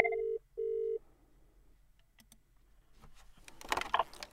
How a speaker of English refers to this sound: I'm going to go off hook. You can hear the phone dial tone. I'll dial 1001.